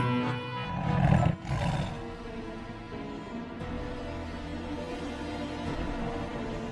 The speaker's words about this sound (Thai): ทั้งเสือโคร่งและราชสีต่างแผดเสียงเถียงกันลั่นป่า